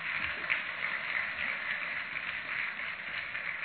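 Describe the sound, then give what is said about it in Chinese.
A crowd applauds steadily for several seconds, a dense, even patter of many hands clapping at once with no voices over it, sounding thin and band-limited. The applause is called for on a call-in show to praise the host (台长). “台长厉害不啦？鼓掌。”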